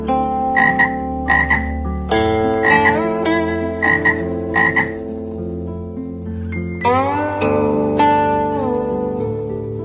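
Frogs croak in short repeated bursts, loud and rasping, over a sustained tonal hum, with a few rising calls near the end beside a mud pond.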